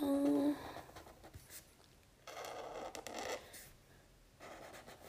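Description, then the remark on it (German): Scratchy strokes of a thick 1.5 pen across paper while drawing hair, a few broad bursts of drawing separated by brief pauses, moderately loud with no talking. “So, okay, ich glaube, als nächstes zeichne ich die Haare, weil ja, die sind halt wichtig. Ich mache die Haare, mache ich jetzt mit dem dickeren 1,5.”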